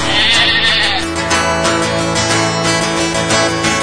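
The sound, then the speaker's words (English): A sheep bleats loudly, a sustained wavering cry with strong harmonic tone that carries through the whole few seconds with slight pulsing variations. “The sheep it did bleat.”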